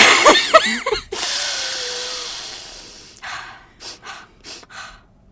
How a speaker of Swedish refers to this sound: hålla handen på magen ja. och så skulle du andas in och ut och så skulle magen